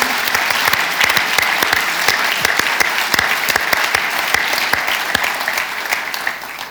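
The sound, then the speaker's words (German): An audience applauds five prize winners who have just been drawn, steadily, dense overlapping claps forming a bright, continuous patter that holds level for several seconds before easing slightly at the end. No one speaks over it. “Applaus für die fünf Gewinnerinnen und Gewinner.”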